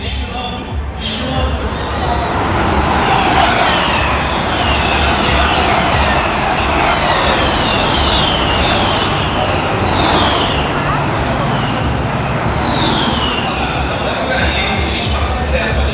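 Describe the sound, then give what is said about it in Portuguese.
Electric Formula E race cars whine past one after another, their high-pitched tones sweeping downward as each car flies by, over a steady, loud roar of crowd and track noise. “esse carro parece uma nave, parece um monte de TIE Fighter passando, velho.”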